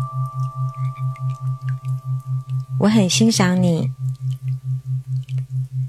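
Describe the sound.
An alpha-wave binaural beat tone for self-confidence: a low, steady tone pulses rhythmically throughout, throbbing about three times per second, with a faint higher hum above it; a voice briefly speaks over the pulsing partway through.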